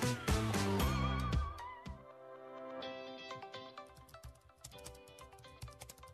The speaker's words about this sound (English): What are you typing? I'm looking for a church to watch online this Sunday.